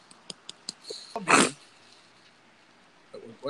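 A single sharp, breathy sneeze from a person whose allergies are acting up bursts out, loud and brief, after a few faint clicking taps; quiet follows, with a soft rustle near the end.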